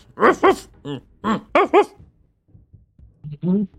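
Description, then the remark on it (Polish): A person mimics a German shepherd's barking, several short loud woofs in quick pairs, a brief pause, then one last throaty bark. “Stoicie przed jego drzwiami, wilczur tylko.”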